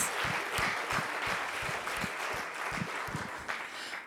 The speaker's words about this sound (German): Wow, oh Gott, lass uns Jesus einen Applaus geben, das ist ja Hammer. Danke, Jesus.